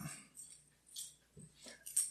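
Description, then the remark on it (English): A puppy whimpers softly in a few short, breathy whines with small gaps between them, quiet, with no one speaking. “Dog, can I help you?”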